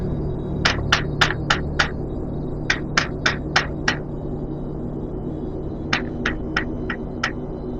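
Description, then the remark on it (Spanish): Three bursts of sharp, evenly paced knocking on a door, about five raps each, separated by short pauses, over a steady low background hum. “Un momento. Escucha. Un... a tocar tu puerta.”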